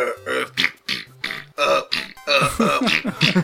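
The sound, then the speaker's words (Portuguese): A rapid run of loud burps, about seven throaty belches in a row with short gaps between them, each one gurgling and voiced, like the burp played in GTA 1 and 2 on PlayStation when a button is pressed. “E eu, eu no, no, bolinha, no PlayStation, quando eu apertava, era sempre um arroto ou um peido.”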